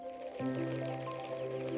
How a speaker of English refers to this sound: this is the sound of a CO2 atomizer. It turns a single big bubble of CO2 from the gas system into a stream of tiny bubbles that help the gas dissolve in the water. That's the sound of the tiny bubbles hitting the hydrophonic microphone.